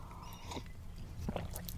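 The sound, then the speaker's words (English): Quiet sipping of tea, taken slowly: a couple of soft slurps and small wet mouth sounds over a low background hum, with no talking. “I didn't have my tea. I'm sipping it slowly.”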